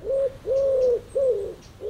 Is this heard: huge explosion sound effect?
no